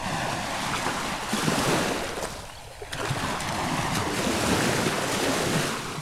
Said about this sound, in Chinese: 风小精用魔法风扇吹出强大的风，想把热气小怪给吹走。可是他这么一吹，海水也被吹了起来，变成了超级大的波浪。